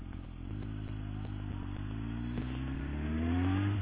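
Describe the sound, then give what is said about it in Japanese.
A motorcycle engine rumbles steadily while being ridden, its low harmonics rising in pitch as it accelerates, with a slight gear shift and wind-muffled texture; no one speaks. “まあ、いつもね、バイク乗ってる時はね、やっぱりぴったりの曲を聴きながら走ってるんですけど、今日ちょっとね、撮るからちょっと聴いてないんで寂しいですね。”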